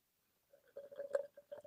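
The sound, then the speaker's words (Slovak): A can of Guinness beer is cracked open at the microphone: a short scraping build-up, one sharp snap of the tab, then a brief soft fizz. It is fairly quiet, with no talking. “A aj to skúsim tak nejak na mikrofón otvoriť, aby to bolo, aby to bolo, malo by to, malo by to priniesť ten, ten krásny zvuk otvorenej plechovky.”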